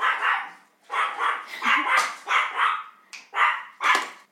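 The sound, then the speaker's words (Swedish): A very small female dog barks loudly at the newspaper being delivered, a rapid run of about nine sharp, insistent barks with brief gaps between them, and no other voices. “Alltså hon låter som en monsterhund men hon är, hon är så jävla liten.”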